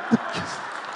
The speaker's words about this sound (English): Wow. Please, let's clap for the man.